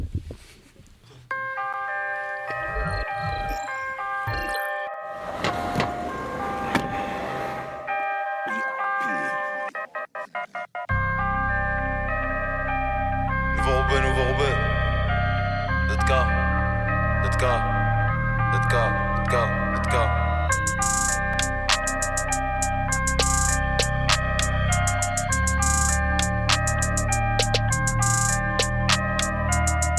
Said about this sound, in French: je vous propose une petite pause avec le, un son de …, …